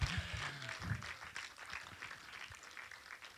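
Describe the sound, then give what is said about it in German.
An audience applauds the technicians with steady, dense clapping that holds at an even, moderate level for a few seconds, with a brief low voice murmur at the start. “Und vielleicht können wir den Technikern mal einen Applaus dafür geben.”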